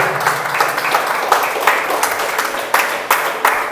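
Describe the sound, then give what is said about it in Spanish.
Sustained applause from a crowd, dense overlapping claps with a few sharper, louder bursts standing out, steady throughout; the applause is given to God. “Y si no le das un aplauso, yo se lo voy a dar.”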